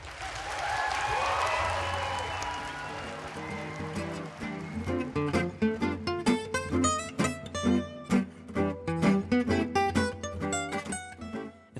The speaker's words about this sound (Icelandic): Gefum þessum frábæru höfundum gott klapp.